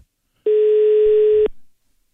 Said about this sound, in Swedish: De heter Annonskonsulterna alltså. Det här är deras växel som vi ringer nu.